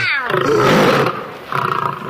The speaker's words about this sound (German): Gut gebrüllt, Löwe.